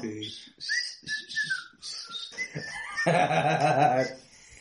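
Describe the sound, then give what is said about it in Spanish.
On the TV show Ventaneando, a person mimics a coach's whistle with a few short, shrill whistled notes among voices, followed by a loud, strained crowing-like vocal sound. “Era como chiflido, ¿no?”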